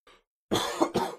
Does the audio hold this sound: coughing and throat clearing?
yes